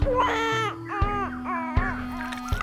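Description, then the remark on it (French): A baby wails in repeated rising-and-falling bursts, loud, with brief catches of breath between cries and no one speaking. “Le bébé, abandonné tout seul, pleurait à chaudes là”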